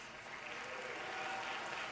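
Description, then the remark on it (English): Steady audience applause as children are brought out from backstage to play musical chairs, a dense wash of many hands clapping at once, holding an even level throughout without any clear break or individual claps standing out. “Give them a huge round of applause.”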